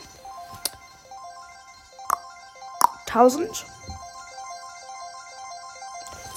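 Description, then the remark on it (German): Bright electronic mobile game season reward chimes with sustained melodic tones, punctuated by a few sharp pings and a quick sparkling flourish midway, while a person speaks briefly over the music, as the season reward is collected. “So, ihr hört hier die Season-Belohnung.”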